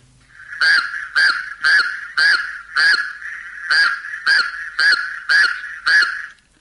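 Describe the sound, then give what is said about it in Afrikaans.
Raucous toads of a single species give a honking call that repeats about ten times in a steady, evenly spaced rhythm, each note a loud, rasping burst, with no talking. “Ek speel ook net so die klank wat hulle maak hierdie lawaai skurwe paddas sodat julle dan kan hoor hoekom hulle so genoem word.”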